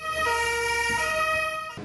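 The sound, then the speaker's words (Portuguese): A Rio de Janeiro fire department truck siren blares, a loud, steady electronic wail whose pitch shifts partway through, then cuts off abruptly near the end. No one speaks. “Conheceram a sede do Corpo de Bombeiros do Rio, pegaram carona em um caminhão”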